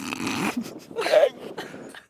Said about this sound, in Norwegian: men sånn her høres det altså en sel ut.